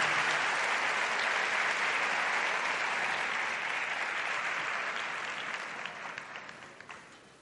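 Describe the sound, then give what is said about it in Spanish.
Sustained applause from a conference audience welcoming a speaker, a dense steady clatter of many hands that holds strong for several seconds, then thins out and fades as individual claps trail off. “Con un fuerte aplauso la vamos a recibir.”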